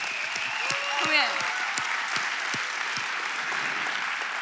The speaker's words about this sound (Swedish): Kan vi inte ge en stor applåd för Nyhem Ung?